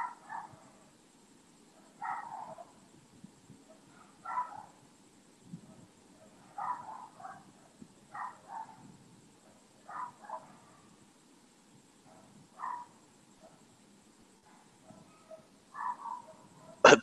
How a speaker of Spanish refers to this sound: el perro, güey, se escucha un chingo, te mamaste. Ah, pues no es mi perro.